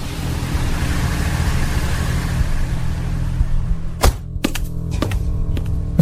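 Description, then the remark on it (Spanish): A car engine rumbles steadily with a low, even drone for several seconds on the drive home, then a series of sharp mechanical clicks and clunks follows as the car is parked and the driver gets out. No one speaks. “estacioné y salí del carro.”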